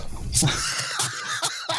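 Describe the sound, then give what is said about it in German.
A sneeze from a German-speaking person whose nose itches: a sharp, loud burst of breath followed by a few shorter, breathy bursts and sniffs, with no talking. “Jo, ich muss niesen.”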